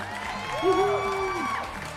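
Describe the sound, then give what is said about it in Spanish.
A crowd applauds steadily while a loud, wavering whoop rises and falls over the clapping for about a second, with other voices cheering beneath. “Señoras y señores, un aplauso. Bravo.”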